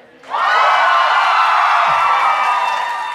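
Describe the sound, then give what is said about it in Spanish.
After a brief quiet start, a live show audience, answering the host's call for applause, bursts into loud, sustained cheering and screaming, with applause mixed in. The roar holds steady at full volume until the very end. “Un fuerte, hermoso, sensual aplauso para.”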